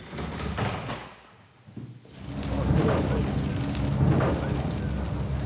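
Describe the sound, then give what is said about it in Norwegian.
Sleet lashes against the saloon windows of an express boat speeding out from Florø, with waves striking the bow hard and the hull shaking, in a dense, hissing patter over a low rumble, easing briefly early on before surging back and holding steady and loud. “Bølgene slår hardt i baugen, og skroget rister, og sluddet pisker mot vinduene i salongen når hurtigbåten skyter fart ut fra Florø.”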